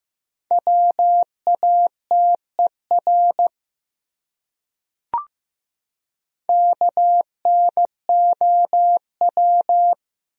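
Morse code practice of the top 100 words at 15 words per minute: a steady mid-pitched beep keyed into dots and dashes in two bursts, with a pause and a single short click between them.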